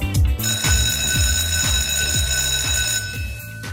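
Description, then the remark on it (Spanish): A school bell rings loudly and continuously for about three seconds, marking the start of the first class of the day, a steady, shrill metallic tone with a rapid rattling pulse underneath, then cuts off just before the end. No one speaks. “Son el timbre y es inequívoco el momento para comenzar nuestra clase, la primera clase de hoy.”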